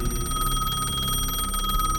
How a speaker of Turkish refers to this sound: Hayır kapı değil bu eski moda telefonumun zili. İlk çaldığından bu yana başıma gelenleri düşününce belki de hiç açmamam daha iyi olurdu. Ama yapamazdım tabii.